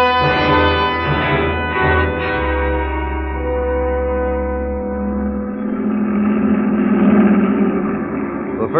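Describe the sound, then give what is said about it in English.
The first heavy military truck of a Nazi convoy roars around a curve, its deep droning rumble holding steady and loud before shifting pitch and thinning out as it sweeps past. “first truck of the Nazi convoy roared around the curve and passed.”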